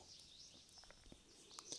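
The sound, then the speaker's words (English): Faint birds chirping in the early morning, a few short, scattered high-pitched chirps over a quiet outdoor hush, with no one talking. “And if you listen carefully, you could hear the birds chirping beautifully.”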